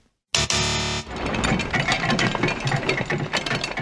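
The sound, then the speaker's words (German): A drawbridge being raised or lowered: a loud grinding, buzzing start gives way to a dense, steady rattle of chains and ratcheting gears. No one speaks. “Genau, da geht eine Zugbrücke runter oder rauf.”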